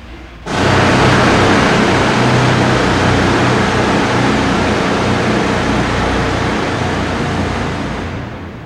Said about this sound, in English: Groundwater pours down from the rock walls above, collecting in knee deep pools below where the sandhogs are getting ready to drill. They pull out big pneumatic jackhammers, attach long drill bits, and start boring holes for the dynamite.